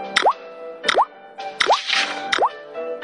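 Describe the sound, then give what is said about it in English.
Four water drip plops at a steady, unhurried pace, each a sharp click followed by a quick upward-gliding bloop, fairly loud and alone with no talking. “The shape of water when it drips.”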